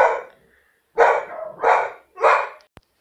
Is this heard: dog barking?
yes